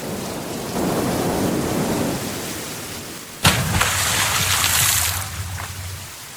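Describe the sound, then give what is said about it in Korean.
Steady rain hisses throughout, then a sudden loud thunderclap cracks about halfway in and rolls into a deep rumble that slowly fades under the continuing downpour. “그러자 폭풍이 언제 그랬냐는 듯 잠잠해졌습니다.”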